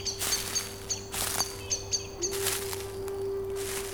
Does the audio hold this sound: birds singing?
yes